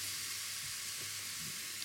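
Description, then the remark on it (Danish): Cabbage sizzles steadily in a pan as it is stewed, a continuous, even crackling hiss with faint low bumps of stirring underneath. The sizzle stays fairly quiet throughout, with no one speaking. “Så stuer jeg den.”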